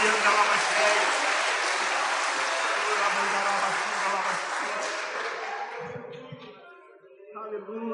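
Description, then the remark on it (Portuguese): An audience claps for the Lord steadily in a dense, sustained wash of applause that gradually thins out toward the end, with a voice and murmuring emerging as the clapping fades. “Aplauda o Senhor, querido.”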